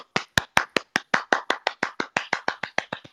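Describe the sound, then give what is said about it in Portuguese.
A round of applause from the live audience of Jornada Ágil, clapping by hand: about sixteen sharp, evenly spaced hand claps in a brisk, steady rhythm, fairly loud and heard on their own without any talking. “Então, moradores aqui uma salva de palmas, modo manual”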